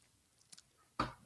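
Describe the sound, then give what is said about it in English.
A wet gulp as a drink is swallowed, preceded by a couple of faint mouth clicks in near silence. There is no talking. “So Han shot first, put him up, clink, clink, knock it back.”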